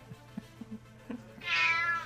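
A single loud, drawn-out cat meow rings out, high and strongly pitched, following a few soft low thumps over a faint steady hum.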